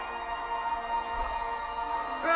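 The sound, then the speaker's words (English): A steady, tonal electronic ringing like an alarm sounds throughout, clear and fairly loud, with the pitch pattern shifting into a new tone right at the end. No voices. “Nice transition from music to an alarm.”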